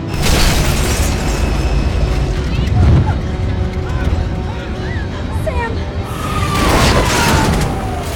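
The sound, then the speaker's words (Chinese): In a film scene, the airplane of Flight 180 explodes and breaks apart midair: a continuous heavy roar with deep booming bursts around the third second and again near the end, plus faint high whines and scattered crackling debris. “最终，飞机在空中失事解体”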